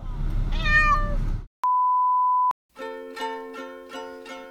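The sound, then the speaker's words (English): A cat named Bosco meows loudly and plaintively against a noisy rumble while being taken to the vet, then a steady electronic beep cuts in before the cat resumes with several drawn-out, wavering yowls. “Please note that no animals, especially not Bosco, were harmed in the making of this recording honest to God, I was just taking him to the vet.”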